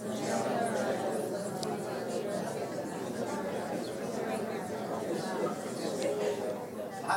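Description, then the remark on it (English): An audience of many voices all speaking at once, each saying their first and last name, address, city, state and zip code, as a model of praying during a worship song: a steady overlapping murmur of indistinct chatter with no single voice standing out. “On the count of three, say all those things.”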